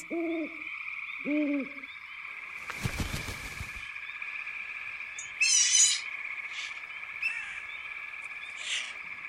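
Two short, low owl hoots sound close together near the start, over a steady nighttime drone of insects or frogs, followed by a brief rustling thump and some scattered chirps.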